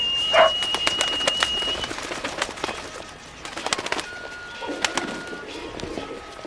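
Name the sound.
carrier pigeons cooing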